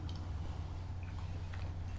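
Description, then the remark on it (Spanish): A quiet second sip of a drink of the day: faint wet slurping and swallowing sounds over a steady low hum, with no talking. “Así que me doy el segundo sorbito”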